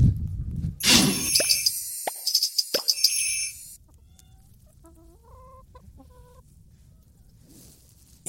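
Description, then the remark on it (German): Many plump chickens cluck as they scurry about and run up to a fence, their short calls mixed with loud rustling and clattering for the first few seconds, then a few softer, tonal clucks over a quiet background. “hier sind ganz viele ganz dicke Hühner, die hier alle rumwuseln.”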